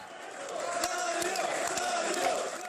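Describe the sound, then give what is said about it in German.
Hundreds of supporters cheer and shout in an airport terminal in Zagreb, Croatia, in 2014, welcoming an arriving man: a steady, dense roar of many overlapping voices, with a few sharp clap-like bursts cutting through the din. “Bei seiner Ankunft am Flughafen in Zagreb im Jahr 2014 wurde er von mehreren Kamerateams und hunderten jubelnden Anhängern im Terminal empfangen wie ein Held.”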